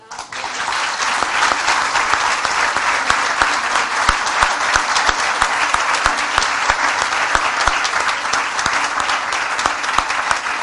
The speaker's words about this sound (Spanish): Pero antes de que empecemos, yo le voy a pedir a toda esta nutrida concurrencia un aplauso de recibimiento.